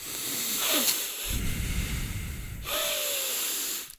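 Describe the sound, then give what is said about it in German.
A voice imitates a man's loud, rasping nasal breathing, several hissy inhales and exhales in a row through the nose, alone, like a straining vacuum cleaner. “Der Typ hat geatmet wie der übelste Staubsauger.”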